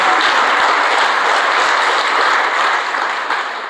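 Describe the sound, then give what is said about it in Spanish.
Sustained audience applause for the Lord at an evening religious service, a dense steady wash of many hands clapping loudly, holding strong throughout before easing slightly at the end. No voices are heard over it. “¿Por qué no le da un aplauso al Señor esta noche?”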